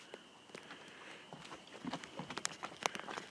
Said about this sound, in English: I'm outdoors now. Can you hear the sound? Listen. You hear the uh, the crickets?